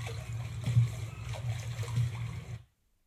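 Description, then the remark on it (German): A nature-sound track of coast and gulls played back from a remote data stream: coastal surf washes steadily at moderate volume with a low rumbling undertone, a few brief seagull cries breaking through, before the sound stops abruptly. “Küste und Möwen aus Küste und Möwen.”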